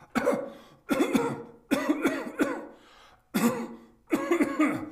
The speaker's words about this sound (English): How long have you had that cough?